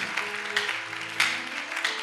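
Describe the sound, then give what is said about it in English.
An audience clapping their hands for the Lord, a dense, steady patter of many claps with a few sharper bursts standing out, over a faint low hum and no talking. “Clap your hands for the Lord as I see you preparing to be a student.”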